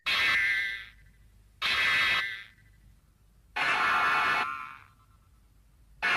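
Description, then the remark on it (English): A robotic monster roars three times in loud, harsh, buzzing bursts of about a second each, separated by brief pauses, without any talking. “His roar actually sounds like”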